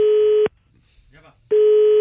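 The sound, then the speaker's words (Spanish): An outgoing phone call to the office of a hardware store, answered as Cementos Mauricio: two loud, steady, buzzy mid-pitched ringing beeps about half a second each, separated by a one-second pause with only a faint murmur. “márcale por favor, camarada, a la ferretería”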